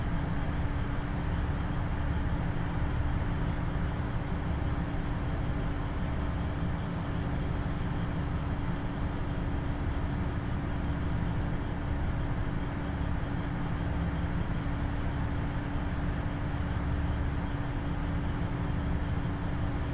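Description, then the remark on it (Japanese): A KiHa 75 diesel train idles at a station on the Taita Line, giving a steady, low rumbling drone and a constant hum that holds an even level throughout, with no voices or other distinct events. “耳で楽しむ鉄道旅 太多線 美濃太田→多治見キハ75”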